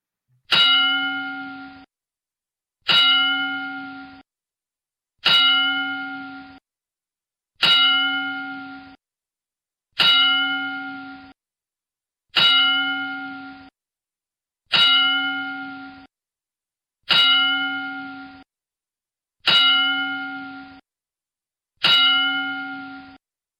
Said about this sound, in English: But either way, uh, Tommy Tiny Lister Jr. Uh, we're gonna go ahead and give him a uh, ten bell salute. So please join us in a moment of silence for uh, Tiny Lister.